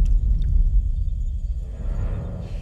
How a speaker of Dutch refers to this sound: Anybody hear that? It's a um, it's an impact tremor is what it is.